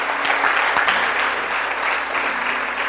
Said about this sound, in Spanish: Le damos un aplauso a Dios, bien grande.